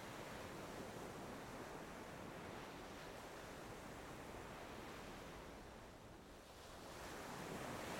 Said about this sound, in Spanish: Gracias por la relajación y la calma que me provoca el sonido de las olas del mar, por la hermosa experiencia de libertad y soltura que me regala al solo pararme frente al mar o sumergirme en sus olas.